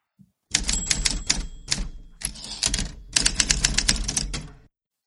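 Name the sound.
typewriter typing sound effect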